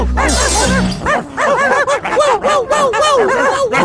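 A rapid flurry of overlapping dog barks and yips, loud, continuing steadily for several seconds with a chaotic, excited feel.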